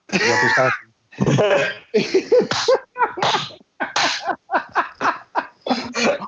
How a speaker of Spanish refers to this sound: No te preocupes, cabrón, si a las dos de la mañana escuchas un estornudo por tu ventana,